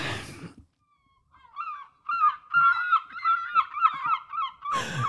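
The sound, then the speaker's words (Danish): Gulls call in a rapid series of loud, squawking cries, without voices, with short bursts of rustling noise just before and after. “Vi skal nemlig direkte videre til Bella og Birdie, som mågerne også indikerer.”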